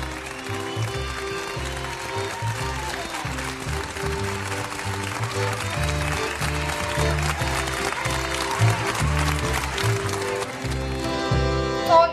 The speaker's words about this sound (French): Chaque soir à 20h, toute la France se met aux fenêtres pour vous applaudir. Vous remercier. Et vous soutenir.